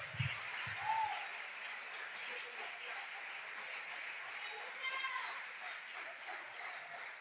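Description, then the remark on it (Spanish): An audience applauds in praise of Jesus with dense, steady clapping that holds at an even loudness for about seven seconds, with a few scattered voices and cheers mixed into the crowd noise. “Démosle un aplauso a ese Dios verdadero, a Jesús, el Hijo de Dios.”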